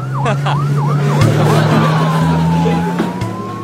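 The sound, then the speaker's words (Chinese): An ambulance siren rises and falls in quick yelping sweeps, then settles into a long, slow wail over a steady low engine hum. The siren is loud and clear, with no voices. “赶紧来辆救护车呀！”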